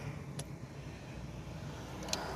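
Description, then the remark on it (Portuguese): Steady low engine rumble from inside a car moving slowly through traffic held up by a Coca-Cola truck, with a constant road hum and a couple of brief sharp clicks. No one speaks. “É, tem um caminhão da Coca-Cola que travando o caminho, segurando o trânsito todo que beleza, hein?”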